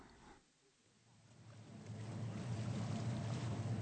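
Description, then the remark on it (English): A steady low engine drone with rushing water noise builds in loudness as a passenger boat sails up the Rhine, approaching the Lorelei Rock, with no voices. “In the meantime, the boat has sailed quite a way up the Rhine and is now approaching the Lorelei Rock.”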